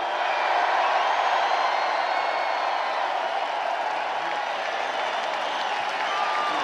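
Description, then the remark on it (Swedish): Donald Trump's supporters at a rally in Grand Rapids cheer and applaud as he declares the Russia investigation over, a loud, dense wash of clapping and shouting voices that holds steady for several seconds, with no single speaker standing out. “Donald Trump konstaterade inför jublande supportrar här i Grand Rapids att Rysslandsbluffen nu är död.”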